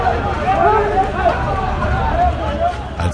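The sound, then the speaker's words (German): A dense crowd of construction workers shouting and chattering together in protest on the building site of a new large airport in Turkey, a steady roar of many voices with no single voice standing out, sounding agitated. “auf der Baustelle des neuen Großflughafens, auch wieder so ein Riesenprojekt von Präsident Erdogan, und da hat sich lauter Protest gerührt”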